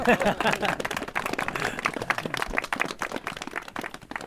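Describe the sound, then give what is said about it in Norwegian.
An audience applauds two men introduced as keen runners, dense rapid clapping sustained throughout at fairly strong level, with a faint murmur of voices mixed in. “De eh, kommer Applaus.”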